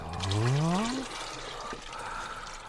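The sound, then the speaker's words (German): Thick malt extract pours into a fermenting bucket, the rising pitch of the filling vessel audible for about a second, followed by soft splashing and sloshing as it is stirred in. “Den Malzextrakt, den leere ich in den Gäreimer und rühr gescheit um, damit er sie auflöst.”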